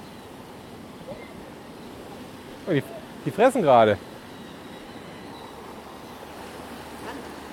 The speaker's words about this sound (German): Wozu sind denn diese Wasserdinger da? Wofür sind die Wasserdinger da? Die Wassersprudler sind dafür da, dass sie mir den Braben in Bewegung halten, damit ich nicht allzu viel Eis kloppen muss.